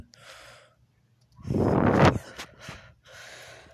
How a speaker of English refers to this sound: I scoff at you.